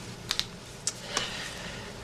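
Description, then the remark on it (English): A handful of sparse keystrokes on a computer keyboard tap out quietly, four crisp clicks spaced irregularly over a soft, steady background hiss, with no voices. “Just use the keyboard.”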